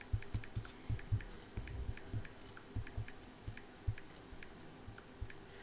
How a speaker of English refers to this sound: I'm typing very slowly.